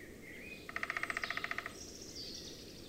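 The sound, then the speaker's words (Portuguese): A black-and-white three-toed woodpecker with a yellow crown, searching for insects in a tree not far away, gives a quick, evenly spaced burst of about fifteen sharp notes lasting a second, over a steady low outdoor rumble with faint birdsong in the background. “escutamos também um pica-pau tridáctilo, procurando insetos numa árvore não muito distante de onde estamos.”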